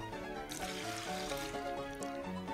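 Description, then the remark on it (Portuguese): Water pours steadily out of a small bowl for a couple of seconds, a soft continuous splashing trickle with gurgling tonal shifts, fairly quiet, with no talking over it. “Olha só, eu tenho uma cumbuquinha aqui. Cumbuca é simples. Eu vou tirar essa água daqui, ó.”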